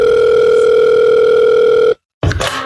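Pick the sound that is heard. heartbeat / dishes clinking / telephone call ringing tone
telephone call ringing tone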